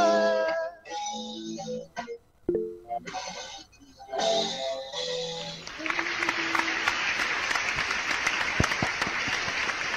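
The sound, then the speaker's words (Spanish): A live sung melody on the program Periodismo Adaptado trails off, then a crowd breaks into steady, loud applause that fills the last four seconds with dense, continuous clapping. “Excelente Fuerte el aplauso”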